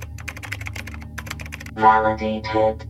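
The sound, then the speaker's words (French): Rapid, irregular clicking of keys on a computer keyboard for about two seconds, a steady flurry of light taps, then a voice begins speaking over faint continued typing. “Voyons voir cet ordinateur.”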